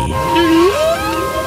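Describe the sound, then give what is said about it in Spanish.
A whale call: one long, tonal moan that holds steady and then glides upward in pitch, with faint higher whistling tones over a soft background hum. No one speaks. “Ostras, vuestras amigas las ballenas os han saludado a todos vosotros.”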